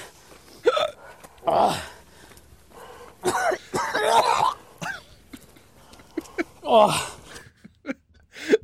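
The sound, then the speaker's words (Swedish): A man coughs and gurgles in a series of harsh, wet bursts and choking gasps after a fly goes into his mouth, fairly loud, with short pauses between the fits and no clear words. “Det bästa i det här sista klippet, det är ju när den åker in i munnen och det första han liksom haspar ur sig, förutom allt gurglande”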